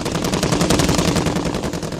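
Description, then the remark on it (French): Rapid, sustained fire from machine guns loosing a hail of small explosive rounds at a target: a dense stream of sharp, crackling shots in a fast, steady rhythm, loud throughout with no voices. “Les mitrailleuses crépitèrent, lâchant sur la proie une multitude de petits explosifs qui atteint leur cible presque immédiatement.”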